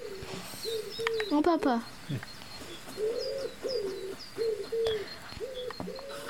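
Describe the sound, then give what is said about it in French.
A pigeon coos over and over in a steady rhythm, low soft calls, while smaller birds chirp faintly in the background and a voice briefly speaks, by a bridge near a château. “Ça fait bien le pigeon.”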